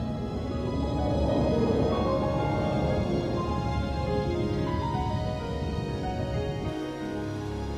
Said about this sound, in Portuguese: Aos sons desse arpejo de harpa, o monstro partido ao meio, expelindo muito sangue, vai descendo para o fundo do mar.